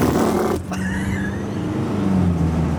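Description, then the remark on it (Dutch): A voice imitates a car accelerating: a loud, steady buzzing engine drone whose pitch slides and climbs, with a brief break about halfway through, lasting nearly three seconds. “Als ze optrekken, dan doen ze...”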